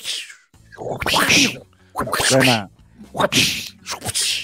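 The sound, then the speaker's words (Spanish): A voice repeatedly mimics a whip crack, about four sharp, hissy bursts with breathy tails, spaced roughly a second apart, loud. “Todos, sabe, todos sabemos que un latigazo suena.”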